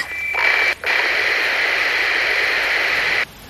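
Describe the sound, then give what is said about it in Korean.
Loud, steady hiss of radio static with a faint tonal whine, briefly cutting out once near the start, then continuing unbroken until it abruptly stops. No voices. “저편에선 치직거리는 잡음만 들려왔다.”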